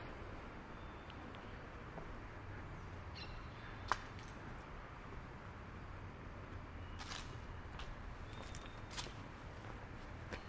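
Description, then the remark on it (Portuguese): Yellow-chevroned parakeets give scattered shrill chirps in the background, clustering toward the end, faint behind a steady wash of car traffic noise near the corner of Nossa Senhora do Carmo and Uruguai. No one speaks. “Estão aí os periquitos ao fundo, periquitos de encontro amarelo.”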